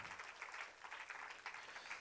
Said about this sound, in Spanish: Dele un aplauso fuerte a Cristo, aleluya. Gloria a Dios.